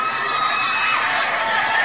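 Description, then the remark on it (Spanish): A dense crowd watching a fight screams and shouts continuously, a loud, steady wall of high-pitched voices with no pauses across the whole short stretch. “Y la gente gritando.”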